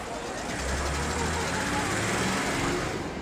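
A small shuttle bus, one of those circling the halls of a trade fair and showing the Brazilian author Paulo Coelho, hums low and steady, its drone swelling briefly, set against a dense wash of crowd murmur and background chatter.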